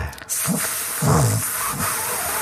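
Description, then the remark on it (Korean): A strong, cold Siberian wind, recorded in Siberia, blows steadily, a broad rushing hiss with low moaning swells rising and falling over a couple of seconds, loud with no break. “방금 그 시베리아 바람 소리는 우리 황 PD가 지난번에 그 3박 4일 휴가가 있었거든요.”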